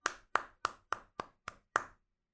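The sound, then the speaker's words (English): Seven sharp claps of fingers against a palm, evenly spaced at a steady, fairly quick pace, each a crisp bright smack with a short decay, and no voices. “Here is fingers against palm.”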